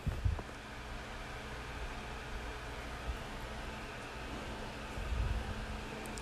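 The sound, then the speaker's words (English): A steady, even whir of an electric fan fills the room, a constant airy hiss with a low hum underneath and a few soft thumps, with no one talking. “You can usually hear it over pretty much everything else, even this fan that I keep.”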